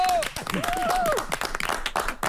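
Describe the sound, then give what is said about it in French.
A crowd applauds loudly with steady, dense clapping while voices shout cheers of bravo over it, energetic throughout, as a guest is announced by name. “humblement pourrais-je avoir, euh, j'ai toujours rêvé d'être une grande artiste, des applaudissements à l'évocation de mon nom.”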